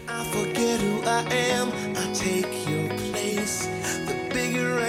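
A pop rock song plays loud and steady, with a full band of driving drums, guitars and bass under a sung vocal line, filling the whole stretch without pause.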